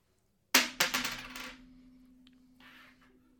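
A coin, tossed to choose between two parties to vote for, hits a hard surface with a bright metallic clink, bounces a few times in quick succession, then rings and settles with a sustained humming tone that fades out.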